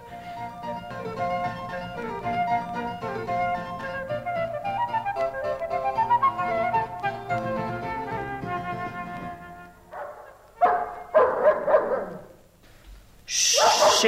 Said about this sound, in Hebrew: שקט, שקט, על מי אתה נובח ככה? מי שם?